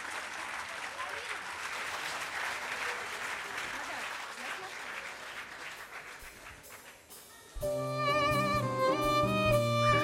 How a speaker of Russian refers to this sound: Спасибо всем, кто сегодня на открытой летней веранде радиостанции «Маяк» спасибо всем, кто аплодирует